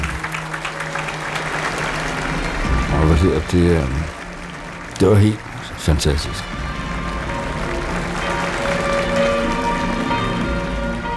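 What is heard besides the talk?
church audience applauding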